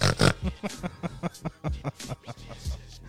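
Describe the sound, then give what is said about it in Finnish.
A voice imitates a pig, letting out a rapid run of rough, snorting grunts, fairly loud, in quick uneven bursts for a few seconds. “Ja sitten sit röhkii, ja tiiäks, niinku, jotkuhan oikeuttaa ton röhkimisen niille hyvillä tarinoilla.”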